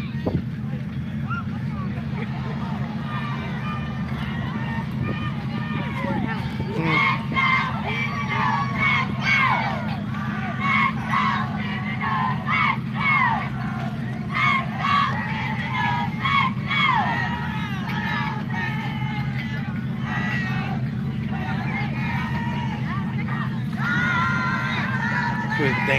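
A dense outdoor crowd at a parade cheers and shouts continuously, with children's high-pitched yells rising above a steady low engine rumble, the noise staying loud and busy throughout.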